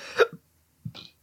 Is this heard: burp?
yes